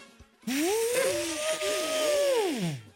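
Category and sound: vocal imitation, voice imitating an elephant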